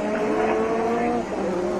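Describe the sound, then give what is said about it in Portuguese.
Alain Prost's Formula 1 car engine screams at high revs coming out of the Clark corner as he overtakes Hélio De Angelis, a loud, steady, buzzing whine that holds strong, with a slight dip in pitch near the end. “Na força absoluta do motor.”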